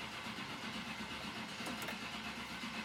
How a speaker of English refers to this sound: I turned on the engine and sped off as quickly as I could. But we didn't get very far. Just a few seconds later, the engine began to sputter.